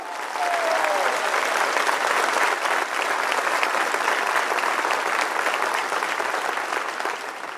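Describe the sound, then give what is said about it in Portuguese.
A church audience applauds the Lord during a Portuguese-language sermon, a dense wash of many hands clapping at even loudness for several seconds, with a brief faint whistle or voice near the start. “Alguém pode dar um glória a Deus a Aplauda o Senhor aí, meu irmão.”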